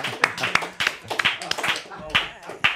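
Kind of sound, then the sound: crowd, audience clapping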